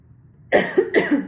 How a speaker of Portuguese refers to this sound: Desculpa. E per... ainda bem foi no final da leitura, tá faltando só um parágrafo. Quando vem essa, essa, essa vontade de tossir é muito ruim